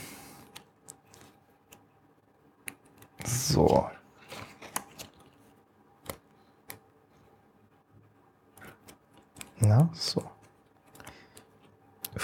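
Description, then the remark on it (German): Tesafilm adhesive tape is pulled off the roll in two short ripping bursts several seconds apart, to stick a cut piece back on, with soft handling clicks and rustles in the quiet between them. “Und jetzt brauche ich wieder Tesafilm.”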